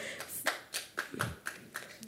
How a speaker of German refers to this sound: Hey, ich nehme gerne Applaus.